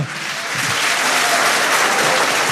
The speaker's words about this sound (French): Jean-Marie Gustave Leclésio, mesdames et messieurs, vous pouvez l'applaudir pour la première fois ici à l'Opéra de Nice.